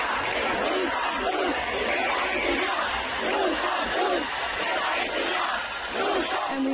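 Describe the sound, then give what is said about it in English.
A large crowd at a pro-Palestine street protest in France shouts slogans in French, a dense roar of many voices rising and falling in rhythmic chanted waves, loud and steady throughout. “Here they are shouting in French.”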